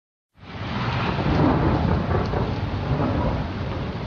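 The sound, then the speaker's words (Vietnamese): Steady, heavy rain pours down continuously in early September in Gia Lai and Đắk Lắk provinces, Central Highlands, Vietnam, with a deep rumbling undertone like thunder. The dense wash of sound starts abruptly and holds at a constant loud level, with no voices. “Những trận mưa liên tiếp gần một tuần đầu tháng 9 này đã chấm dứt nhiều tháng khô hạn cục bộ tại các huyện phía đông khu vực Tây Nguyên thuộc hai tỉnh Gia Lai và Đắk Lắk.”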